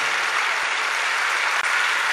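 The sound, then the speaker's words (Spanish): Steady crowd applause fills the whole stretch, a dense, even wash of many hands clapping with no voices rising above it. “Se está dando un aplauso, no te está saliendo.”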